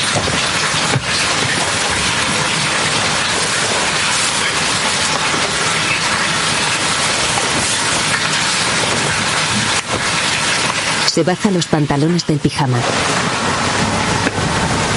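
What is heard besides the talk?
running water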